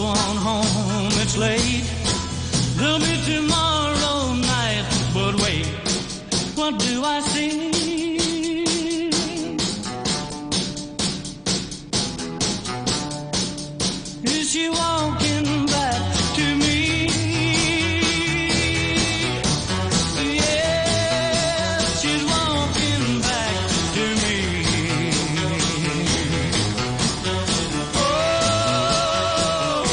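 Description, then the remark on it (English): A 1960s rock and roll song plays loud and steady, a full band with drums and a male singer's melodic vocal lines riding over a driving beat throughout. “That's a classic track there”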